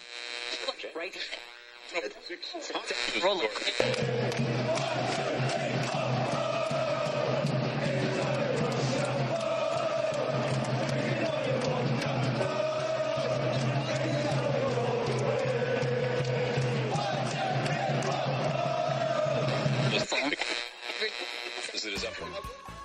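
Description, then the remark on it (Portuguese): A large crowd of English football fans chants a song together in a stadium, loud and continuous for around fifteen seconds, with a heavy droning buzz underneath before it cuts away. “e, para surpresa de muitos, tornou-se hino dos torcedores ingleses na Copa da Rússia em 2018.”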